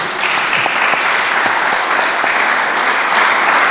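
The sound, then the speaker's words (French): Steady audience applause for Eric Cazot, a dense wash of many hands clapping at a constant loudness throughout, with no voices over it. “Applaudissements pour Eric Cazot.”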